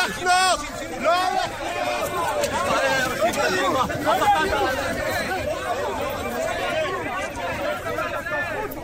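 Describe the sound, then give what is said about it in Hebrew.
A loud protest crowd of striking public-college students shouts and chants together, many raised voices overlapping in a dense, continuous roar of yelling that never lets up, as they try to block President Rivlin's convoy arriving at a higher education conference. “אה, היום הם הפגנה אה, כבר אה, שלישית או רביעית שלהם, אבל היום היא הייתה אפילו סוערת במיוחד, הנה תשמע את הקולות.”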